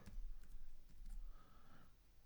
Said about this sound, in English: Excuse the typing noises. It's alright, I'm going to cut this out.